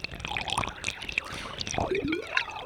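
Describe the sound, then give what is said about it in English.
Water pours and splashes steadily while bright drips plink and gurgle on top, fairly loud, with bubbly rising tones from drops landing in liquid. “This week, we will explore the topic of water the drops, the dripping, the flow the rush, the waves, the gargling. Water creates so many diverse and wonderful sounds.”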